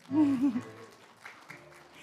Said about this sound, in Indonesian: Jadi terima kasih. Tepuk tangan dulu untuk suami saya.